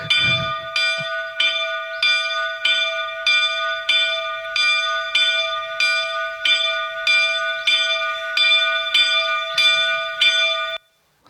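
A church bell in a bell tower rings in a steady, even rhythm, about a dozen regular strokes with long sustained ringing tones overlapping, fairly loud, then stopping abruptly. No voices.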